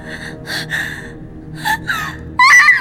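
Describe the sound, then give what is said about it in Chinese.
A woman's startled cry from beneath a bridal veil: a few short, breathy high-pitched gasps, then a louder, sharper wavering cry at the end, with no speech around it. “那一瞬间，向南风听见盖头下面传来了一声惊呼，那声音分明是路遥在喊”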